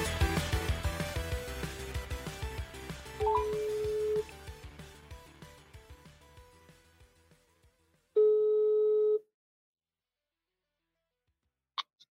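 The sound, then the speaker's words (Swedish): Two steady ringback tones of about a second each, a few seconds apart, sound over fading background music. Silence follows, then a faint click near the end as the call connects. “Vi börjar med att ringa den här första jävla apan.”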